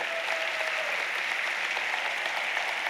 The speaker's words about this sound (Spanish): Si usted lo cree, déle un aplauso al Señor, pero fuerte.